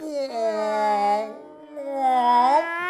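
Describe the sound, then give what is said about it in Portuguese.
A fart in two drawn-out, buzzy tonal blasts, each about a second long, with a brief gap between them. The second one wavers and rises in pitch before trailing off. “É um bom peido esse.”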